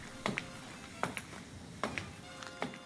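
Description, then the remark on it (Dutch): High heels click across the hard floor of an empty classroom in a slow, steady rhythm, each sharp tap ringing briefly, with no voices. “Ja, wat je hoort zijn mijn hakken in een leeg lokaal.”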